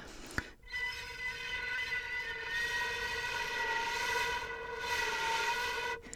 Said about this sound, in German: ein bisschen den Oberton konnte ich rauskitzeln, ja, also quasi so ein Flascholett. Hast du das gehört? Äh, da hast du noch du dazu gepfiffen. Nö, jetzt Nö, nicht. das war die Flöte.